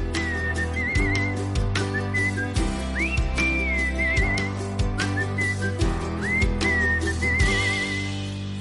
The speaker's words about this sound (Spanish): Y bueno, pues, escuchemos. De ahí el silbido.